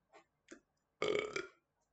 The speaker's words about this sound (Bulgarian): дори бих се оригнал, ама не мога се оригнал.